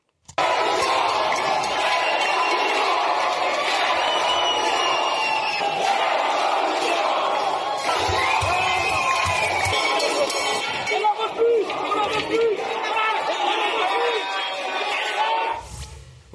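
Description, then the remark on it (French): A loud, dense crowd of shouting voices protesting in anger at the town hall of Poitiers on a Saturday, an angry din that stays steady for about fifteen seconds, with occasional bellows, whoops and clinking or banging noises, ending abruptly. “Après ça, difficile de ne pas comprendre celles et ceux qui ont exprimé leur colère samedi dernier, comme ici à la mairie de Poitiers.”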